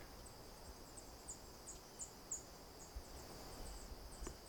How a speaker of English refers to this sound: Not exactly a songful dawn chorus. So we got a lot of calls. from various warblers and probably a couple chickadees in here.